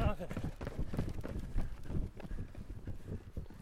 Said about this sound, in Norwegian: Så vi hører lette, rappe løpesteg.